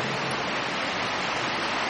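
Rain falling steadily, a dense, even hiss of countless drops with no breaks or changes in loudness, heard alone without any voices.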